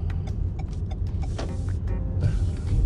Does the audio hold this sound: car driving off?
yes